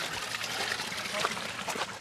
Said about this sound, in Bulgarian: О, сега минаваме край чешма.